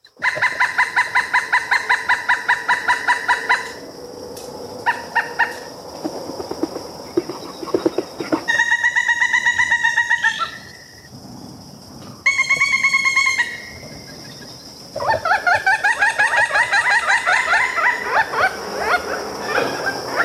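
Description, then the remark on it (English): A pileated woodpecker gives its territorial call: loud, rapid series of high ringing kuk notes in several separate bursts, clear, with short quiet gaps between runs and no talking. “Territorial calls are a higher pitched series of kick, kick, kick, kick, repeated for up to a minute.”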